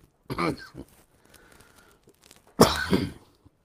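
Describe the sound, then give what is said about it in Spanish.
A harsh cough from one person with a very dry throat, dried by air conditioning in Florida, around half a second in, then a quieter rasp, followed by a second louder burst of throat clearing and coughing near the end. “perdón, como te dije, tengo la garganta muy seca.”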